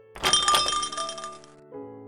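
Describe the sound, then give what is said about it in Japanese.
The door of a small basement bar in a building along a national road swings open and sets off a bright jingle of small hanging bells that rings out and slowly fades, with a soft musical tone entering near the end. “国道沿いの小さな雑居ビル地下へと続く階段を降りるとそこには一風変わったバーがあります扉を開けると”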